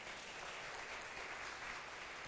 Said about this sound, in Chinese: 我们再一次用热烈的掌声，谢谢。